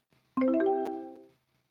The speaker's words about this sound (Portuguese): O celular de vocês dois toca, do nada. Barulho de notificação. Que vocês acham estranho porque tá, tá, tá sem chip.